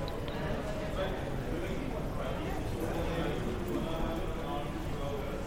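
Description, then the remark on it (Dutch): Steady airport terminal ambience at Schiphol airport, recorded with Sennheiser Lightning earbuds: a constant wash of indistinct crowd murmur with scattered footsteps and clatter, moderately loud and evenly sustained throughout, with no single voice standing out. “Op de achtergrond hoor je nu al de luchthaven Schiphol, die met deze dopjes is opgenomen.”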